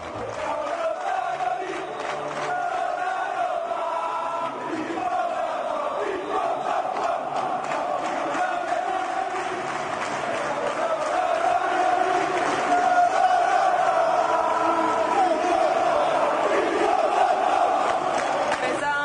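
A large crowd of AS Roma football fans chants in unison a song they sing only at away matches, about travelling many kilometres and overcoming obstacles, set to a 1978 tune; a dense wall of voices sustained steadily for the whole stretch, growing slightly louder toward the end.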